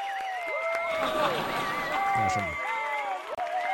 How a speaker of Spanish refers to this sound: Vamos, a, aplausos, por favor. A ver si los encuentro.